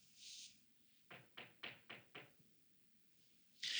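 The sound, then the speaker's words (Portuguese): Five quick, evenly spaced knocks, like rapping on a door, land in a steady rhythm at moderate volume. Brief hissy bursts sit at the start and end, with no voices. “Ele está batendo na porta.”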